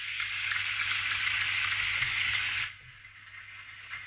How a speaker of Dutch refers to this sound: het begint hier te regenen.